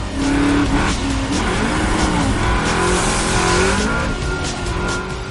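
A car engine roars loudly, revving and accelerating hard with rising and falling pitch, with tire squeal and skidding throughout as a car missing its driver's door skids across a wet floor inside an industrial building, then accelerates and crashes into another car.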